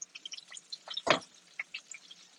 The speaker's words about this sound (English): Now here's a little trick I learned. I just ran just a little bit of water over my fingers. I'm dripping that water